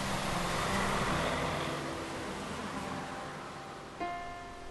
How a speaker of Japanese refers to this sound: 白山通りを車が走り去るたびに雨は行き場を見失う